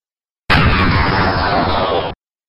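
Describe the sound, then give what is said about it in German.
The death sound of a Spider-Demon monster from a video game: a loud, harsh, noisy roar with a rumbling low end, held steady for under two seconds before cutting off abruptly. No one speaks. “Ah, den Sound habe ich auch da. Da finde ich den Todessound super.”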